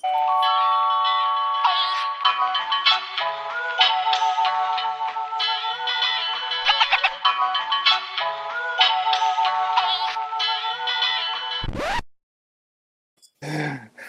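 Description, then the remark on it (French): A bright, melodic theme jingle plays steadily for about twelve seconds, layered tones and a busy tune, then cuts off abruptly into silence before a brief faint sound at the end. “Euh, on va mettre la thème.”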